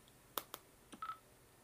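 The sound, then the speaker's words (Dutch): A few soft taps on a phone screen pressing stop to control an Olympus recorder, followed by a short electronic beep tone, all quiet with no talking. “Ik druk op stop. Pas. Stop.”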